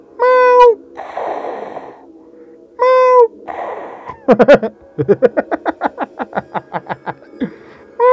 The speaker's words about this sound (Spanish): Y los gatos maullan así.